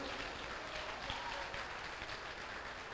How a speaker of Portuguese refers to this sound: Quiser aplaudir, aplaude para ele, para ele, para ele. Para o Todo-Poderoso.